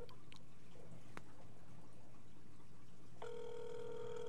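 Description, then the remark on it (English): A steady electronic ringback tone cuts in near the end, sustained and clear, as a call is placed to another person's phone. Before it there is only a low hum and a few soft clicks, with no voices. “I'm calling you your phone right now.”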